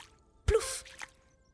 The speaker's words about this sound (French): il s'amuse à sauter à pieds joints dans une flaque d'eau.